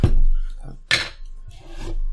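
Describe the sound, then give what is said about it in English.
A small ceramic custard dish clinks sharply against a hard surface, followed by a softer scrape and rattle as it is moved around, with faint background murmur. “Complete with little custard dishes.”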